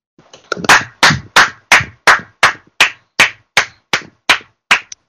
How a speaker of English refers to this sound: Those aren't sound effects. That's me actually clapping. You were actually clapping.